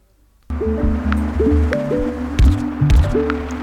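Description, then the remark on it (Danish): Soft, sparse video game plinks, sounding when new cars drive out and new things spawn: short pitched blips stepping up and down over a low, bubbly, squelchy bed of sound, steady, with no one talking. “Altså, det, det er jo ikke det er meget, Det er meget de der små pling.”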